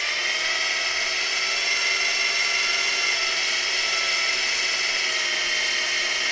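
A continuous high-pitched mechanical whine, like a power drill running steadily without pause, loud and sustained throughout with a dense hiss in the upper range and no voices; renovation work by the neighbour in the flat upstairs.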